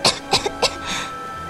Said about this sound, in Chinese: 咳嗽了一会儿